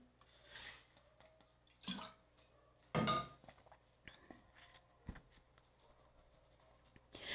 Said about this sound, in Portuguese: Deixa eu tomar uma água.